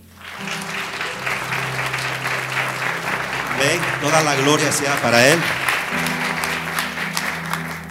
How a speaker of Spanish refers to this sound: Si tú lo crees, puedes dar un fuerte aplauso a Dios.